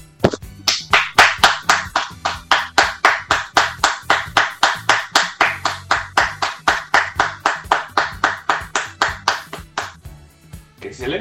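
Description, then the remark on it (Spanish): Steady rhythmic clapping: sharp, evenly spaced claps at a brisk beat of about three to four per second, lasting around ten seconds before stopping abruptly. “¡Aplausos, por favor!”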